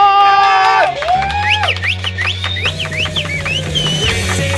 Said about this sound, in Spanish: ¡Aplausos!